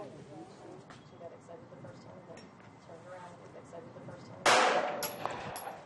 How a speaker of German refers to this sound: Natürlich daneben. Die nächsten Schüsse treffen zumindest die Wand mit der Zielscheibe. Dafür, dass sie Rechtshänderin ist, aber mit dem linken Auge zielt, ist das gar nicht schlecht für eine Anfängerin